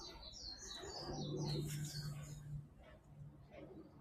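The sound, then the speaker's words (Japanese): A Japanese bush warbler calls in a quick series of bright, high chirps and trills, with a steady low hum running underneath through the first half. “あの、ウグイスとか”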